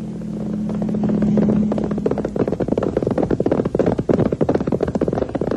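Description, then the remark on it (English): The hooves of a ridden horse gallop in a fast, steady pounding rhythm, loud, building after a low sustained rumble and continuing to the end with no voices. “On horseback.”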